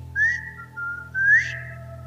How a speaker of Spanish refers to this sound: nuestra familia tiene un silbido que es especial para la familia